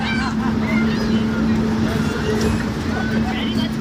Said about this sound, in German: Ah, das ist halt laut. Und zwar Scheiße, jetzt verdirbt er mir meine ganze Dramaturgie. Ich muss, noch, ich muss so weit wie möglich weg. Ich muss mal gerade ein bisschen weiterlaufen, weil ähm, dieses Motorengeräusch ja nicht haben wollte.